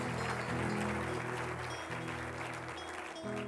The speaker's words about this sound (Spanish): Dele un aplauso al Rey de Reyes y Señor de Señores, Jesucristo.